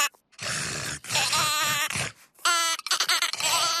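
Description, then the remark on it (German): A sheep bleats about four times in a row, each call a loud, wavering, nasal cry. The bleats come close together with only short pauses, and no one speaks. “Hm, das Schaf will auch nicht mitspielen.”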